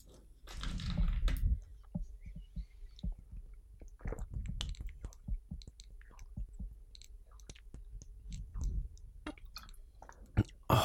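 Someone drinks water: a short rustling burst, then a run of soft wet gulps, swallows and mouth clicks in an irregular rhythm, with no talking.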